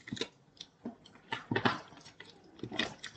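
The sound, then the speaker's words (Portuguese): Someone drinks from a bottle: a few soft gulps and swallows with wet clicks and a faint slosh, spaced irregularly over a few seconds, with no talking. “Não é ao gato, é à garrafa. Que isto deixa-me seco, meu.”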